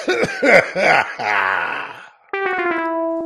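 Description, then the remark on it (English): A person imitates a drum roll with three quick, close coughs that run into a rough, throaty rumble. A short pause follows, then a steady buzzing electronic tone. “That's the best cough drum roll ever, by the way.”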